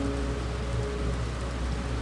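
Steady rain patters on a hard surface, a dense, continuous hiss of drops with no pauses, even in loudness throughout.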